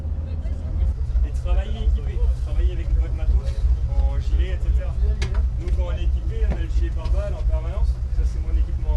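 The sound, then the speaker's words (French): The motor of a fast patrol boat carrying Beninese soldiers drones loudly and steadily on the ocean, a deep continuous rumble, with several voices talking over it throughout. “Drapeaux nationaux en main, une dernière photo souvenir au milieu de l'océan, et les soldats béninois reprennent la mer à bord de leur vedette rapide.”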